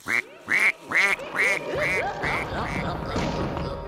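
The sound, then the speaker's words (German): A duck quacks repeatedly in a quick, steady series of about seven loud, nasal calls, with a rustling, noisy background growing beneath the later quacks. “Liebe Ente, liebe Moorhexe, lass mich bitte in Ruhe.”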